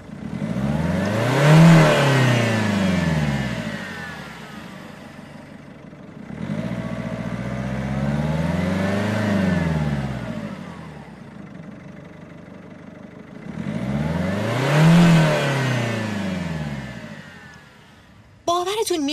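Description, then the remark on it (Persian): A car engine revs up and back down three times in slow, steady swells, its pitch climbing and falling with each cycle, loud, before cutting off abruptly at the end. “به این تغییری که در فرکانس صدا اتفاق میفته میگن زیر و بمی یا ارتفاع صوت نوت ها در واقع درجه بندی همین دامنه صوتیه که مثالش رو توی قوی و ضعیف شدن موتور اتومبیل شنیدین”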